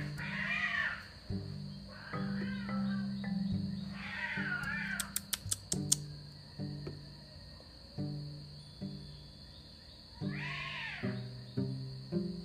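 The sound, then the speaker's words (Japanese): Two cats fighting in the morning, with loud, wavering yowls and harsh caterwauls that rise and fall in repeated bursts, broken by short sharp clicks and scuffles, over a steady background hum. “ちょっと猫ちゃんが喧嘩してます”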